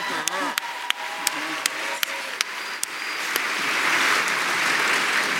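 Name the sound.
audience applause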